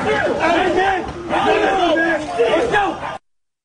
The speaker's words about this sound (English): the officers are trying to handcuff the 34 year old man who is resisting officers. Witnesses are heard screaming at police.